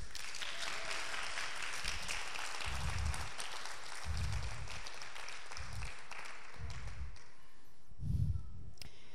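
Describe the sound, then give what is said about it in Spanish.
An audience applauds steadily for Jesus, a dense wash of clapping filling the whole clip, with occasional low thumps rising beneath it and no talking over the sound. “¿Puede dar otro aplauso, Jesús?”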